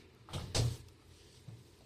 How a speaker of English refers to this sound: Close the door, baby. Close the door.